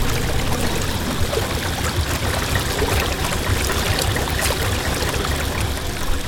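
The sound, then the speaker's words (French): Water laps and trickles steadily against a boat hull as floating clumps bump against it, a continuous soft splashing with small irregular slaps and no voices. “On se berce du silence rare émietté par les grumeaux de flottaison contre la coque”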